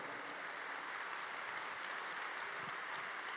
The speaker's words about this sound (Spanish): si le vas a aplaudir, un fuerte aplauso a él. Fuerte.